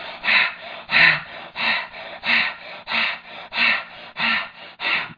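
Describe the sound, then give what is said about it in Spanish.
Rapid, forceful breathing in a steady rhythm, about eleven quick breaths in five seconds, each a loud airy rush with no talking: a woman lying on her back with feet apart, breathing four or five times faster than normal and drawing air into her chest. “Eso es ella está respirando cuatro o cinco veces más rápido jalando aire aquí al tórax.”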